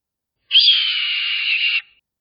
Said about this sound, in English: Tobias's hawk let loose an intimidating shriek.